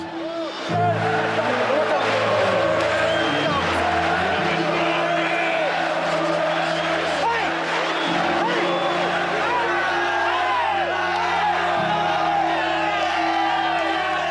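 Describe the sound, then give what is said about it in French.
A huge stadium crowd roars and cheers without letup at the final whistle of a European football match, dense shouting and whooping layered over a steady low drone, loud and sustained throughout. “Au coup de sifflet final, l'escure est en fusion. Dans le stade, c'est la folie.”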